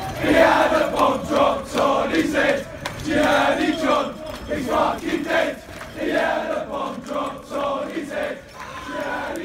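A large crowd of West Ham football fans chants loudly in rhythmic, repeated bursts in the streets of London, voices massed together and echoing outdoors with a rowdy, sustained energy, with some sounds of glass in the middle.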